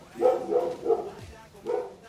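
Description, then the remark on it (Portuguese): A dog barks in a quick series of sharp bursts, about four woofs with short pauses between them, fairly loud against a quiet background. “Pera aí, deixa o cachorro parar de latir.”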